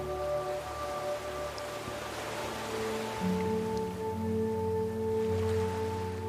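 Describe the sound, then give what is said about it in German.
A continuous wash of sea surf rolls on steadily, blended with soft, sustained droning tones that hold beneath it. No one speaks. “Hinter euch die Dünen und vor euch das Meer und die Sonne.”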